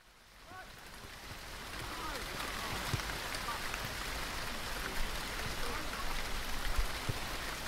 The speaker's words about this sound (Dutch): Terwijl de regen neerdaalt op de atletiekbaan hier bij het eh, Arena Park.